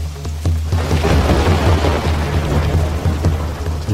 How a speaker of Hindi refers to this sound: हे भगवान कितनी तेज वर्षा है यहां तो कहीं दूर दूर तक आसरा भी नहीं दिखाई देता वर्षा की बूंदे नदी पर और खिले कमल के पत्तों पर पड़कर एक अलग ही लय की रचना कर रही हैं